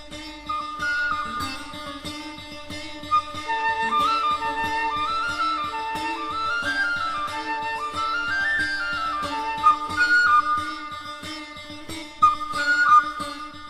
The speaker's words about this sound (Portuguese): Essa música que estamos ouvindo, escrita como tema de abertura, utiliza instrumentos jamais pensados num arranjo como uma campainha de casa, um apito, campainha. Observem. Observem agora as flautas